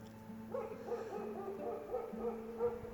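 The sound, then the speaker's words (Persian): Dogs bark in a steady, repeated series of muffled yelps, carried over a quiet low hum in an open outdoor setting with mountains ahead and a plain behind, several hundred kilometres from home. “روبروم کوهستانه و پشت سرم دشت و میشه از صدای سگ ها فهمید”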